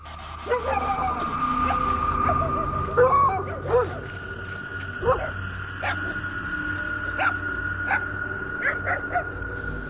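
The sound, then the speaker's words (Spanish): Dogs bark and yip in short, scattered bursts over a steady droning background tone, fairly loud throughout, in the main parking lot of a cemetery, barking toward the cemetery. “en el estacionamiento principal del Camposanto, los perros tuvieron una actitud bastante extraña, ¿no? Como que se nos acercaron, pero no para agredirnos, sino parecía más bien como para protegernos, porque ellos ladraban hacia el Camposanto.”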